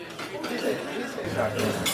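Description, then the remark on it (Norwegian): Busy diner ambience at a diner in Manhattan, New York, in June 2016: cutlery and dishes clink intermittently against a steady murmur of indistinct chatter from other tables, with a low hum running underneath. “har det seg at jeg denne junidagen i 2016 sitter for meg sjøl på Westway Diner på Manhattan uten andre å snakke med enn min egen mikrofon, som unektelig kjennes litt merkelig.”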